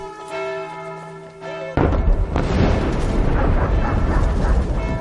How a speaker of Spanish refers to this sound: Hacen explosiones hasta en el día del señor.